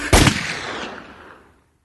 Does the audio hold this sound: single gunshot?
yes